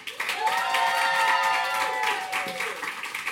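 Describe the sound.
An audience at the Magnet Theater bursts into sustained applause welcoming a guest to the stage, starting abruptly and holding steady for a few seconds, dense clapping from many hands with some voices cheering in the crowd.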